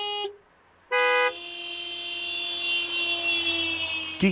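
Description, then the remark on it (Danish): Two short, loud car horn blasts, the first from a small car, a Fiat 500, with a thin, bright tone, followed by a long steady honk that swells, then a brief final toot; an old Mercedes W124 is also driving past. “Og den første dyt, det er en Fiat 500.”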